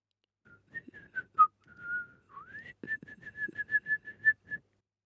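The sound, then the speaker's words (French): A person whistles a birdlike melody imitating a blackbird singing outdoors: short chirps, a long sliding note, then a quick run of repeated bright whistles, clear with no talking. “Dehors, le merle chante.”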